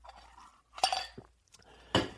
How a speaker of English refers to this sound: Okay, I'm going to take a sip of my water. Hold on.